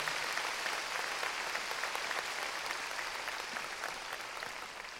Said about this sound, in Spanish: Démosle palmas fuertes, hermano a nuestro Señor.